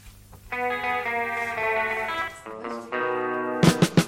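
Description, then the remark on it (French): Loud rock music for children by a four-piece band, played from a CD: distorted electric guitar chords ring out and shift every second or so, ending in a quick burst of drum hits. No voices. “Depuis, 13 autres disques sont sortis, toujours dans la veine rock.”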